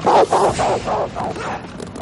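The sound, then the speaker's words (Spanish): A dog barks rapidly and aggressively as it lunges at a man who opens a door in a dark house, a burst of about five or six loud, harsh barks in quick succession that fade slightly toward the end. “Al oír un ruido tras una puerta, la abre y un perro se abalanza contra él.”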